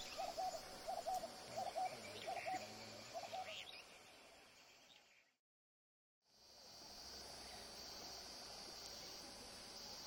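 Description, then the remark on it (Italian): At night at a camp in a clearing on a river bank, a bird calls out in a quick series of short, hooting notes over a steady chorus of chirring insects, then falls silent, leaving only the insect drone after a brief gap. “Dopo una notte tranquilla, disturbata soltanto da qualche uccello più urlatore di altri,”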